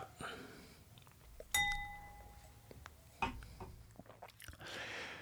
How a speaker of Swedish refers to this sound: Då tar vi och lämnar, vi tar en klunk eh, cider här emellan tycker jag. Skål på er. Skål.